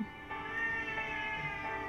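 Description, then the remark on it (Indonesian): A cat meows insistently, a sustained, strained wail with a few pitch breaks, carrying on for the whole two seconds with no talking. “tapi sorry kalau denger suara kucing itu ada kucing”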